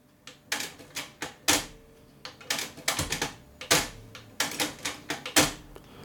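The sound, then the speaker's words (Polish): A Technics dual-cassette deck's Dolby B and Dolby C switches are clicked on and off again and again, sharp mechanical snaps in an uneven rhythm, some louder than others, with no voices between them. “Teraz na chwilę włączę i wyłączę.”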